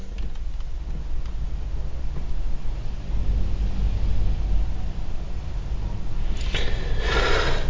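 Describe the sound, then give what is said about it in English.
Wind howls steadily outside on a windy day, a dense low rumble with gusty surges that swells into a brighter, hissing rush near the end. No one speaks. “You hear the wind howling in the background.”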